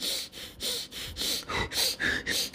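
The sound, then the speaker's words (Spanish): A person demonstrates the breathing of a panic attack: quick, shallow, panicky gasps, about five or six rapid breaths in a row, fairly loud, with no talking. “Uno está tan preocupado que no te das cuenta que en lugar de tener una respiración así como tenemos una respiración más que suena así.”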